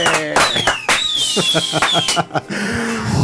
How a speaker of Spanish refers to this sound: Así es, y nos despedimos con estos cohetes.